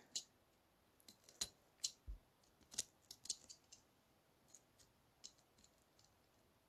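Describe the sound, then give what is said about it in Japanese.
A blade works slowly and cautiously through a silkworm cocoon, kept shallow so as not to hit what is inside, with faint, crisp snips and clicks scattered irregularly over a quiet background. “でもあんまり刃を入れると当たってしまうの怖いし、そろりそろりと進めておりますが”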